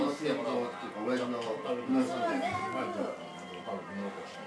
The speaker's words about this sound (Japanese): 隣の客席の会話が入るスタートだったんですけどねはいいっきり声がね隣の声が入ってますが